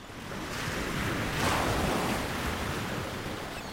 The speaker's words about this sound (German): Die Brandung hat das Treibholz aufgeschichtet zu Scheiterhaufen. Gischtfetzen schießen auf die Dünen zu, Salzwasserdunst verklebt die Brillengläser, Sand peitscht gegen die Haut.